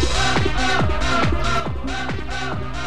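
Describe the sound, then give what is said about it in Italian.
A loud, punchy theme jingle plays on its own, built from a fast repeating motif of bright tones with swooping downward slides, steady and energetic throughout. “Va buono ragazzi, quindi io potrei lanciare la sigla preferita da tutti gli italiani?”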